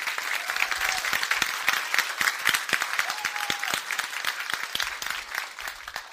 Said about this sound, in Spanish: Wow, ¿por no le das un aplauso a Dios?